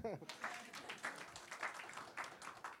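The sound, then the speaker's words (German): A crowd applauds after a Bible passage is read aloud in a foreign language: steady, dense clapping with regular bursts of hand claps that hold at an even loudness for a few seconds, after a brief voice at the start. “Danke, großen Applaus.”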